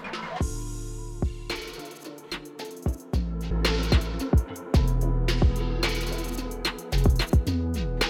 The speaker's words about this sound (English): what you're hearing right now is an unmastered track compared to a, a professional master track. Mastering in the final boost and polishing music needs to sound radio ready.